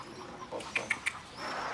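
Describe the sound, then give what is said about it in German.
A chicken named Sibylle gives three short, clipped clucks in quick, evenly spaced succession, fairly sharp and mid-pitched, over a quiet, faintly noisy background with no talking. “Das Huhn schaut vor sich hin.”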